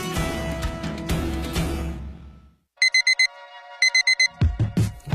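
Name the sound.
alarm clock ringing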